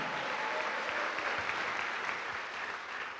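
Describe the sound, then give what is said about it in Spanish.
An audience applauds steadily, a dense wash of many hands clapping at a constant level for a few seconds, with no voices standing out above it. “Dele un aplauso a Cristo por eso.”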